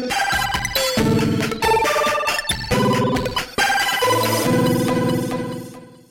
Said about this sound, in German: werdet ihr jetzt auch das Intro von Was wäre wenn hören